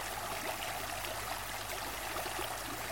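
A steady, continuous babble of flowing stream water, even and unbroken throughout with fine trickling detail, moderately quiet and with no voices present.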